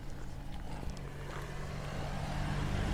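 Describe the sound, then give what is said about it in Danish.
A car approaches, its steady engine and tyre rumble growing gradually louder over a few seconds with a low hum underneath, and nobody speaks. “Jeg tror, det er nogle af de eneste biler, jeg har ja. set, når vi har gået rundt her.”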